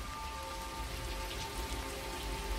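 Heavy rain pours down in a dense, unbroken hiss, with a steady patter of drops at an even loudness throughout. A faint, thin tone hums underneath, and no one speaks.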